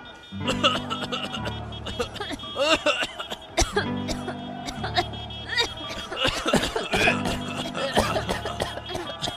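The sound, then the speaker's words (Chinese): People cough in repeated harsh, broken fits, loud and overlapping, caused by smoky motorbike exhaust, while a low steady droning hum starts and stops three times underneath. “哎哎哎，我们可不是感冒哦，都是你的乌贼车害我们咳嗽了啦。”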